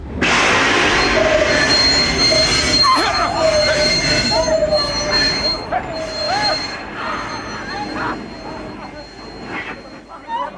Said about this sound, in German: Sobald ich jetzt sage, in dem Augenblick, ziehen Sie die Notbremse. Und versuchen Sie besser nicht den Helden zu spielen, wenn der Zug hält.